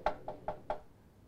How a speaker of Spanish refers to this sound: Pasan cinco segundos y golpean así.